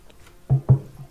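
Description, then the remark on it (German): A wasp gives two short buzzing bursts in quick succession, a low droning hum with a faint buzz lingering afterward. “Das ist eine Wespe.”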